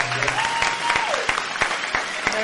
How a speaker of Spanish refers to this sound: Un aplauso para todas ellas, gracias.